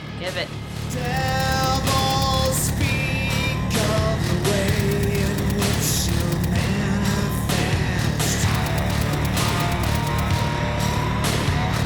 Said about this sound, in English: love that guitar. Sounds like the same guitar performance.